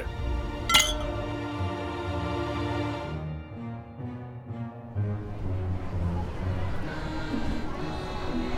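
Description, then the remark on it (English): A single bright clink of glasses rings out near the start as the Burgomeister, the Father and the Constable drink a toast, followed by a busy murmur of crowd noise that continues to the end. “Now then, Father, Constable, join me in a toast.”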